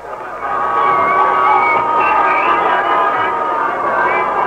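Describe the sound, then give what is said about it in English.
A big street crowd at Broadway and 42nd Street near Times Square, many in uniform, roars and cheers on the night of a Great White Way premiere. Many voices merge into a dense, steady clamor that swells in after a brief quieter start and stays loud throughout. “There are lots of uniforms in the crowd tonight at Broadway and 42nd Street.”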